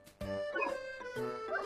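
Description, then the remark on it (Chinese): A small dog named Diaodiao, bounding toward a girl with her schoolbag in its mouth, gives two loud, high-pitched yappy barks, the first drawn out and the second following about a second later, with no voices present. “忽然呢，小狗蹦蹦跳跳的朝罗莎跑过来，它还叼来了罗莎的书包。”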